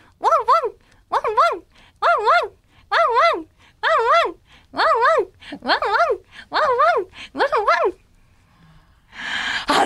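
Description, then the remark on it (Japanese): Voices imitate a dog barking, chanting about nine evenly spaced 'wan-wan' (woof-woof) barks in a steady rhythm for eight seconds while trying to time ten seconds, followed by a brief burst of noisy commotion. “そっかワンワンだからえどうするちょっと吠える感じで言ってみますかじゃあいきますせーのワンワン”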